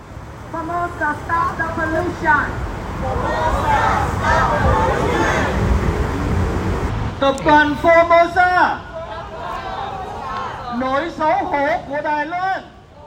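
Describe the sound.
A crowd of protesters chants slogans outside a Formosa Plastics shareholder meeting in late May, led by an activist from Texas demanding Formosa stop pollution: a single voice calls out, a mass of voices answers in a noisy roar, then short rhythmic shouted phrases repeat over a steady hubbub.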